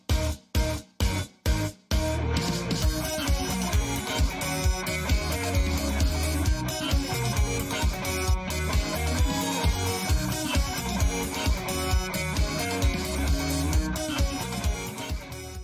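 An opening theme pop song plays loudly, opening with four punchy stabs before driving drums, bass and bright instruments kick in at a steady upbeat tempo. No one talks over the music.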